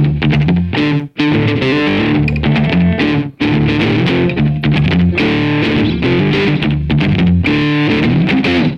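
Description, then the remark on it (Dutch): A short, loud distorted electric guitar riff plays alone, one of the riffs heard now and then between segments of a programme: chunky chords in a driving rhythm with a couple of brief stops before it picks up again. “Ja, je hoort zo nu en dan een paar van die riffjes dus tussendoor.”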